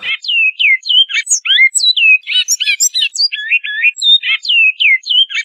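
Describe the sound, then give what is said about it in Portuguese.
A great-billed seed-finch sings its flute-type song, a song category used by breeders of captive birds: a loud, continuous run of clear whistled phrases that slide up and down with quick rhythmic notes, with no voices. “Então tem lá o canto flauta, esse aí que você está ouvindo”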